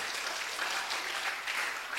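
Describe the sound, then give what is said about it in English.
An audience at a church service claps steadily, a dense wash of many hands with no clear individual beats, holding an even, moderate loudness throughout with no voices on top. “Oh, I thought you were going to clap your hands.”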